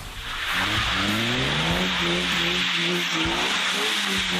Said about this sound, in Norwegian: Kan man drifte med en elbil? Det er det vi er her for å finne ut av.